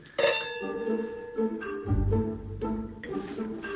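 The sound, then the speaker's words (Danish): Glasses clink together in a toast, a bright ringing chime struck several times in quick succession, each strike leaving a sustained shimmering tone, with no voices. “Skål.”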